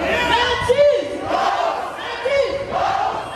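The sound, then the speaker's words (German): A large crowd of about 4000 demonstrators at a May Day demonstration in Nuremberg, Germany, opposing a neo-Nazi march, chants loudly in unison, the rhythmic shouted phrases repeating every second or so with a dense, echoing roar of many voices behind them. “Es geht um viel lauter.”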